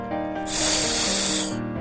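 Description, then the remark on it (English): A loud, sustained snake hiss bursts in over soft background music, a bright airy rush lasting about a second before cutting off. “It's a snake! What sound does a snake make?”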